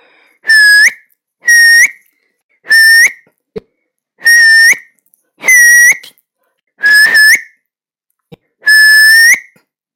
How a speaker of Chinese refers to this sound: 杨永乐把两根手指放在嘴里，轻轻一吹，就吹出了响亮的口哨。